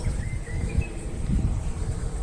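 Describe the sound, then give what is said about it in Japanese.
An unidentified bird gives a few faint, thin chirps over a low, steady outdoor rumble, the calls brief and quiet rather than a full song. “この鳥なんだろ？”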